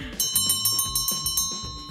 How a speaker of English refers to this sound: Oh, listen, there's the closing bell.